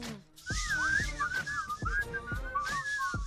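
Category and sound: human body sound, person whistling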